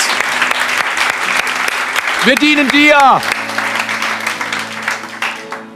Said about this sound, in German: Gib ihm mal einen Dankeschön Applaus. Gib ihm mal ein Dankeschön. Danke, Jesus.